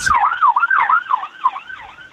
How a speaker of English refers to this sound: I think I think that siren tells you everything, yeah.